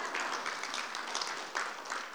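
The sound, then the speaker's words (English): An audience at an evening Christmas worship service claps together, a steady, dense wash of many hands sustained throughout with small swells, fairly loud, and no voices rising above it. “That's okay. You can clap.”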